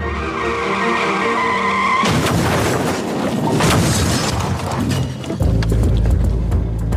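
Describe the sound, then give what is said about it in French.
A car engine drones, then tires skid and loud crunching impacts break out as the car is rammed repeatedly from behind, followed by a heavy, rumbling roar as it rolls over and leaves the road, loud with no talking. “Elle expliquera qu'après une succession de chocs, elle fera des tonneaux et elle quittera la chaussée à l'issue de l'accident.”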